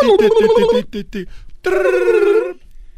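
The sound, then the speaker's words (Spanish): A voice imitates a telephone ringing with a warbling, trilled tone: one long ring, a few short chirps, then a second long ring that ends abruptly. “está haciendo la voz, el efecto del, teléfono.”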